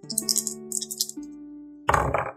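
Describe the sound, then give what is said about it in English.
Dice rattle and clatter in quick bursts of small hard clicks as they are rolled for a perception roll, followed by a louder tumble near the end, with a soft steady musical drone underneath and no talking. “Can you roll me a perception roll?”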